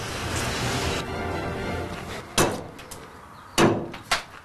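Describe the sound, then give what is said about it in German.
Three sharp, heavy hatchet blows strike a wooden roof beam in an attic near Augsburg, checking it for wood-destroying insects, the first alone and the last two in quick succession, over a steady low hiss with no one speaking. “Ein paar Hiebe mit dem Beil genügen und Ralf Eichleiter weiß, wer es sich in diesen Balken gemütlich gemacht hat.”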